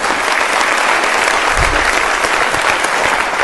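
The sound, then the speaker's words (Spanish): Steady, dense applause from an audience for a five-year-old child fills the whole stretch, loud and continuous with no pauses, many hands clapping at once in a broad, noisy wash. “Un aplauso para el líder, ¿no? De cinco años.”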